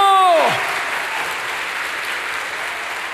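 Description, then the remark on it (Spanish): An audience breaks into steady, dense applause for the Lord that continues evenly for several seconds, opening with a brief tone that slides quickly downward in pitch before the clapping takes over. “Dele fuerte ese aplauso al Señor.”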